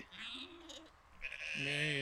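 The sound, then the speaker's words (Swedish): Two sheep bleats in loud protest at being stopped from getting to the grass: a thinner, wavering call first, then after a brief pause a louder, fuller bleat with a shaky, quavering tone that holds to the end. “Hög, högljudda protester från ETC får nu.”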